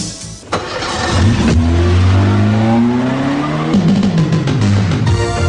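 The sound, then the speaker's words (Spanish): A Fiat car engine roars loudly, its pitch climbing steadily as it accelerates, dropping briefly before revving up again, with no voices. “Auto oficial de la Copa del Mundo.”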